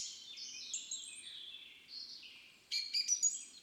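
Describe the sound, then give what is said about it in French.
Birds singing in a wood combined with a wetland: overlapping high, warbling phrases run steadily at moderate volume, then a louder, sharper burst of quick chirps and trills near the end. No voices are heard. “On a les deux qui sont associés et donc on a des espèces qui sont inféodées au bois, pas mal d'oiseaux notamment”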